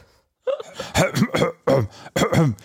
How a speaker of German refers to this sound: Ich muss mich mal gerade räuspern. Kleinen Augenblick.